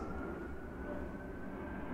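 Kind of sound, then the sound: vehicle, airplane passing overhead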